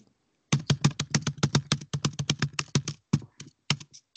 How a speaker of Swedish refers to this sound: Inga tangentbordstryck, tack. Absolut inte.